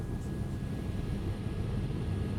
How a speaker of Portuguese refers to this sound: Flagrante do helicóptero da Record TV, um homem ficou gravemente ferido depois de cair de uma moto na zona sul de São Paulo.